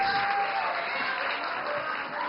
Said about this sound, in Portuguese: Eu quero aplausos. Mais alto. Mas aplauso!